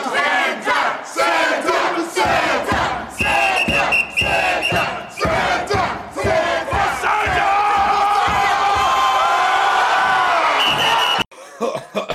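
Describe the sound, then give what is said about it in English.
A crowd of people screaming and yelling together, loud and sustained with overlapping voices and rising shouts, continuing for several seconds before cutting off abruptly. “if you listen very closely when everybody's screaming before he says Saint Nicholas is a saint, Cena just yell”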